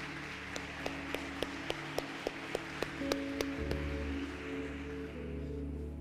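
A church audience gives a round of applause to the Lord, clapping in steady unison, about a dozen sharp, evenly spaced claps over sustained keyboard chords and a low hum, then the clapping stops while the music holds.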